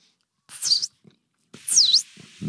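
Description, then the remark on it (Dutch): A voice imitates a yellow-browed warbler call: two thin, high-pitched squeaky notes, each dipping then rising, with soft breathy mouth noises between and after them. “En een heel vet geluidje zo.”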